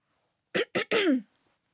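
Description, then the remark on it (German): A loud throat clearing made of three quick bursts, two short rasps followed by a longer, grinding one, with silence before and after. “Ich musste mich einfach nur räuspern.”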